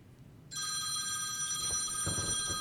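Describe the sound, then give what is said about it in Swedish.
A telephone ringtone starts abruptly after a brief quiet moment and rings continuously with a bright, steady electronic tone, fairly loud, with faint low rumbling beneath. “ringsignal kan jag ha.”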